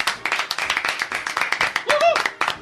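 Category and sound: crowd, audience applause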